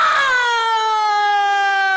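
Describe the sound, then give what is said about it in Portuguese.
A loud, sustained vocal wail mimics an ambulance siren, a person's voice holding a bright, steady tone that sweeps slightly downward for about two seconds, with no talking. “O que você tem? É ambulância besta!”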